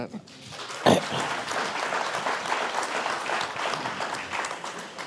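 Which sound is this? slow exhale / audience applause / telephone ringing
audience applause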